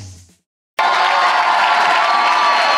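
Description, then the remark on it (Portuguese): After a brief fade and a moment of silence, a crowd bursts into loud, sustained cheering and applause for Jesus, a dense wash of clapping and shouts that holds steady to the end. “Vamos lá, você pode aplaudir Jesus, que é digno de toda honra, de toda glória.”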